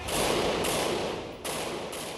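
Loud, harsh bursts of gunfire crackle in rapid succession during a shootout as everyone runs, with sharp cracks punctuating a continuous dense roar, and no one speaking.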